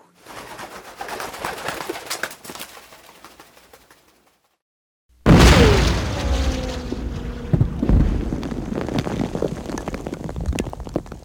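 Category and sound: sound effect, loud explosion boom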